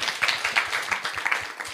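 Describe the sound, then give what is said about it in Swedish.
An audience applauds, a dense patter of many overlapping hand claps at a steady, moderate loudness with no voices on top. “Ja, vi tar en applåd. En applåd.”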